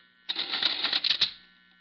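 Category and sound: machine, lever pulled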